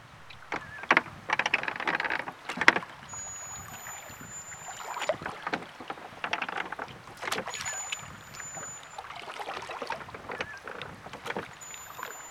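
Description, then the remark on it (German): Oars dip and splash in a loose, repeated rhythm as a rented wooden rowboat moves across the calm water of Biogradsko Jezero, a glacial lake in a national park forest, in bright sunshine, with knocks and creaks of the oars against the boat and no voices. “Am Ufer konnten wir uns ein Ruderboot aus Holz ausleihen und paddelten so bei herrlichem Sonnenschein über den wunderschönen See.”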